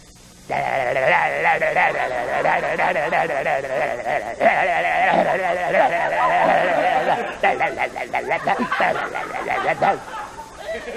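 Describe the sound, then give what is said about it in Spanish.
A voice imitates an 'avisporro', a cross between a wasp and a bumblebee: a steady nasal drone held for several seconds with wavering pitch, then breaking into choppy, stuttering buzzes near the end. “Se trata de la imitación de avisporro. El avisporro es una cruza de avispa y abejorro.”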